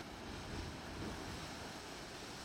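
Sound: sea waves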